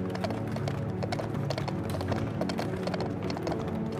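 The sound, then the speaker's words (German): Horse hooves of a carriage clop steadily on cobblestones in a town, approaching the town centre, in a brisk, even rhythm, fairly loud, with a low rumble of wheels or street noise underneath and no talking. “Das Hufgeklapper auf dem Kopfsteinpflaster verrät dir, dass du dich dem Zentrum näherst.”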